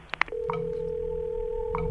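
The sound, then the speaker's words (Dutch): A steady telephone dial tone hums continuously after a couple of quick clicks at the start, with faint handset clatter partway through; no one speaks. The call is made from a telephone booth on the Blauwberg in Herselt on a Sunday afternoon at 4 o'clock. “En zondagsmiddags om 4 uur is er iemand die belt vanuit een telefooncel op de Blauwberg in Herselt.”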